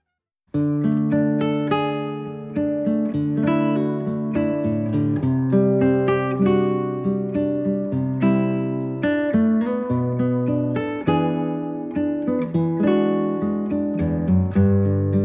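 A jazz piece plays steadily with no voices on the Italian radio programme Jazz Un disco al giorno: rich sustained harmonies and a bright melodic line over a low bass, with gentle accents and a consistent, moderately loud level throughout.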